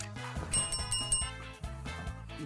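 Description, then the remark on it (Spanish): A bright, ringing notification bell dings several times in quick succession near the start, clear over a steady bed of background music, with no one talking. “pónganle follow y aparte denle clic allá a la campanita.”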